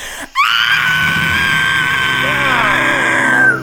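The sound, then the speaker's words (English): A person voices a long, loud, piercing screech, imitating a blood-curdling shriek that holds steady at a high pitch for about three seconds before breaking off abruptly. “you're going to take eight damage from that blood curdling screech.”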